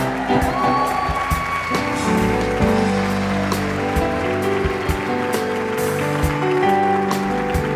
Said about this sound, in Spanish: Dale un fuerte aplauso.